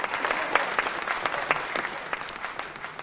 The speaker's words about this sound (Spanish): Charlotte aplaude.